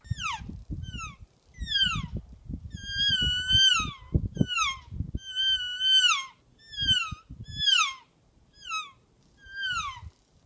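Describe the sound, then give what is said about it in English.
A Real Game Calls elk reel, a game call made in Gypsum, Colorado, sounds about ten times in a steady series: high, whining mews that slide downward in pitch, with low rumbling noise beneath the first half of the calls. “Real game calls featuring the elk reel.”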